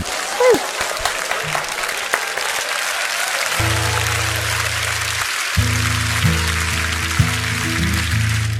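A crowd claps steadily throughout, a dense, sustained wash of applause. Partway through, sustained keyboard chords begin to play underneath the clapping.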